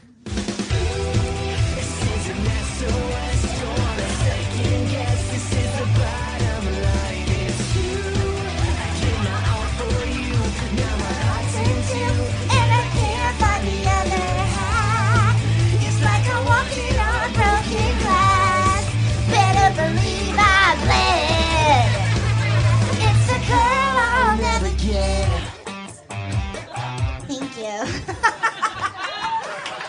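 An upbeat pop song plays loudly with lead vocals over a steady, pulsing bass line and full band backing, then cuts off near the end, leaving a few seconds of scattered noise.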